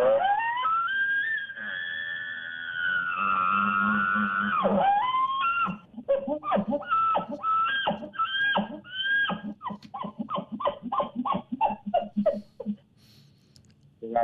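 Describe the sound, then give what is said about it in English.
A person imitates an elk's buzz bugle, also called a lip bawl, an aggressive call for a fired-up bull elk: a long, loud, reedy rising-and-falling call lasting several seconds, followed by a quick series of rhythmic guttural grunts that trail off. “So I'm going to do a, what's called a lip ball, or a lot of people call it a buzz bugle.”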